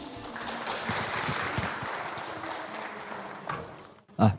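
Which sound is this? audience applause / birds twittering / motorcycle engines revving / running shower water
audience applause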